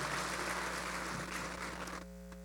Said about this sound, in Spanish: Amén y amén. Dele un aplauso a Jesús y ocupe su lugar.